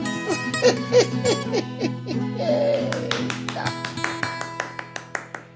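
A quick run of hollow, owl-like hooting calls repeats for a couple of seconds, then gives way to a steady sequence of sharp, evenly spaced taps or claps.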